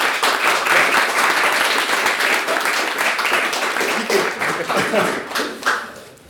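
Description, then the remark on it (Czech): An audience applauding, a dense, steady patter of many hands clapping that holds strong for several seconds before thinning out and fading at the end. “Prosím o potlesk”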